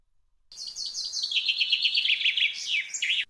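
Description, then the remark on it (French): A finch chirps in a rapid, bright run of high notes lasting about three seconds, clear, ending in a quick flourish. No one speaks. “D'ailleurs, j'entends mon ami le pinson qui revient de son long voyage.”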